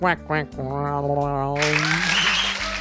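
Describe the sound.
A voice speaks in drawn-out tones, then a burst of dense, steady clapping takes over and continues fairly loudly until the end.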